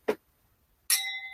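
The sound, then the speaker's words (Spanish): A soft tap, then a bright clink of wine glasses touching in a toast, the glassy tone ringing on clearly for a moment afterward, with no voices. “Salud porque por fin estamos juntadas y porque ni el coronavirus ni nada va a impedir que nos veamos.”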